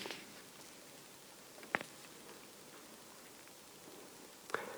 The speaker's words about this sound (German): Hagel und Regen haben wir auch schon gehört